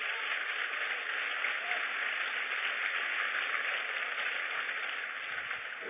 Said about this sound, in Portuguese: Aplauda o Senhor forte, se é para ele.